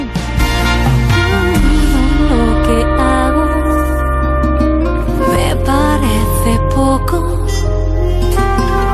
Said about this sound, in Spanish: que acaba de sacar este último sencillo de …, que suena así de bien